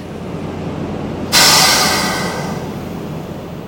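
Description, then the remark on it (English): A luxury passenger train in Moab rumbles steadily, then a sudden loud rushing hiss bursts in and slowly fades back into the low rolling clatter. No one speaks. “seeing the luxury passenger train might become a little less surreal and blend in a little more to Moab's overall tourism landscape.”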